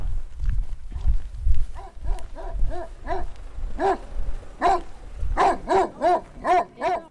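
A dog barks repeatedly in a steady, rhythmic series of about a dozen sharp barks, growing louder and closer toward the end, over low rumbling and shuffling noise at the start.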